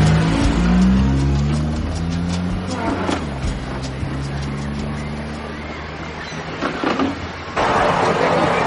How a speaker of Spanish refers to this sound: arranca el coche y se va mientras la mujer entra en el bar de la estación de autobuses.